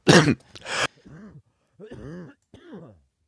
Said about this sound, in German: Also jetzt geht's wieder los bei mir hier. Muss mir etwas frei husten.